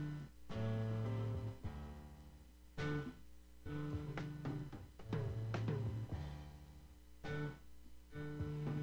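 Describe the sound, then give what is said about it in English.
Soft music plays steadily throughout, with sustained tonal notes and crisp rhythmic attacks, quiet overall and with no voices on top. “Thought I heard music.”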